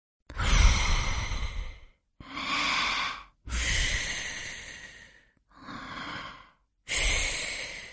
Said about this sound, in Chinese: 不一会儿，山洞里传来均匀的呼吸声。嘘，青蛙西西累得睡着了。